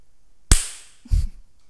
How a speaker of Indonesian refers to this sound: Ntar saya tepuk tangan dulu ya.